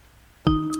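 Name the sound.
phone ringing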